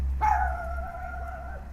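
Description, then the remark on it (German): A dog out on a walk with its owner lets out one drawn-out, whining bark that holds a steady pitch for over a second, fairly clear over a low background rumble. “Und heute begleitet mich mein Hund.”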